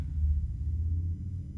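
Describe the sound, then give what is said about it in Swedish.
A motorcycle passes outside, its engine a steady, deep rumble that holds for over a second with no voices over it. “Ja oh, jävlar, det var en motorcykel utanför jag bara what the fuck”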